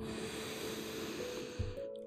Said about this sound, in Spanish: Vamos a hacer una respiración profunda, profunda.